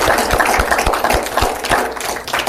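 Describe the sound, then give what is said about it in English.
A steady wash of audience applause, many hands clapping at once in a dense, even patter, with a regular low thumping running underneath throughout. “And for that, I deserve a round of applause.”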